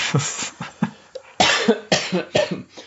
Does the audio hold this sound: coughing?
yes